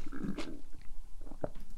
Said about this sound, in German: Aber solange können die Leute dir beim Kauen zuhören.